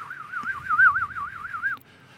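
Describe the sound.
A person whistles a trembling, warbling tone in imitation of a bird call, the pitch wavering rapidly up and down for under two seconds before stopping abruptly.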